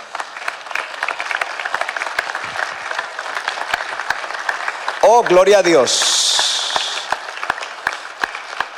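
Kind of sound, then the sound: crowd, audience applauding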